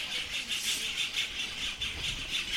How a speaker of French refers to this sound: On a l'impression qu'on est dans une zone euh, réservée aux oiseaux là. Vous avez fait ces entretiens et il y a les oiseaux qui chantent autour de vous, il y a des nids partout.